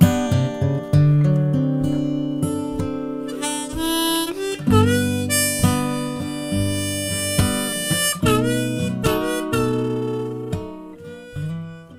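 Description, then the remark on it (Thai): A short instrumental tune with guitar strummed and plucked underneath while a bright harmonica carries the melody in sustained, wavering notes, played steadily and fairly loud with no voices. “และเพลงเมื่อกี้นี้นะครับ มีเครื่องดนตรีอยู่ทั้งหมด 2 ชนิดครับ ซึ่งก็ประกอบไปด้วยเครื่องดนตรีชนิดแรกที่ดังมาก่อนเลยคือกีตาร์ครับและเมโลดี้ของเพลงนี้ก็คือเครื่องดนตรีที่เรียกว่าฮาร์โมนิกาหรือว่าเมาส์ออแกนนั่นเองครับ”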